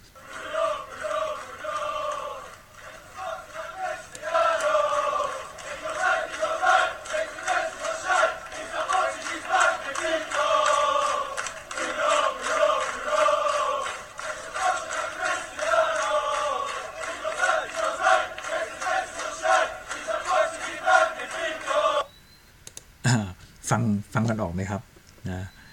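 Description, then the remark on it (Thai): A big crowd of football fans sings a stadium chant for Bruno ("Bruno, Bruno, Bruno, he's from Sporting like Cristiano") in unison, a steady, loud wall of voices for about twenty seconds before it cuts off into a few short, sharp bursts. “ไว้ร้องเชียร์ในสนามแล้วนะครับนะก็เดี๋ยวเราไปลองฟังเพลงก่อน ฟังเพลงดูนะ ว่าเขาร้องว่าอะไร”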